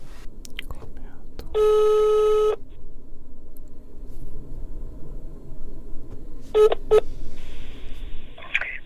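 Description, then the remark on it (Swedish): Telephone tones as a phone call is placed: a steady one-second tone, then a quick pair of keypad dialing beeps and a longer high tone, over faint murmuring and mouth noises. “Eh, så då ska vi se om vi kan ringa.”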